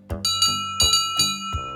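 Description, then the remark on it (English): A bright metallic bell on a short, boxy steam tram engine with cowcatchers rings in quick, repeated strikes, about six clangs in under two seconds, each ringing on with a sustained tone, loud with no talking. “He has metal safety frames front and back, called cowcatchers, and wooden side plates, and he has a bell rather than a whistle.”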